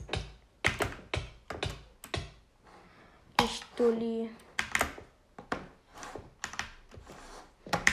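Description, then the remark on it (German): Loud computer keyboard clatter: rapid bursts of key presses in uneven clusters, with a brief spoken remark breaking in partway through. “So, ähm, ich weiß, dass auch in meinen Aufnahmen die Tastatur so saulaut ist.”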